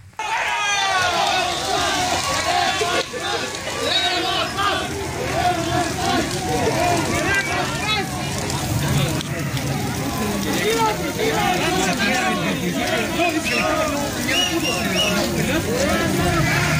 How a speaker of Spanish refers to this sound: Bueno, les gritan queremos paz, los abuchean